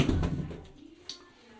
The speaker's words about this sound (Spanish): Y así se oye el baño.